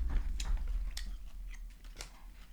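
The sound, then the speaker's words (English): Crunchy chewing of dried figs with little seeds in them, with sharp crackling bites repeating every half second or so over a low rumble, no talking. “Um, those figs are crunchy. Hmm. yeah, there's like little seeds in them.”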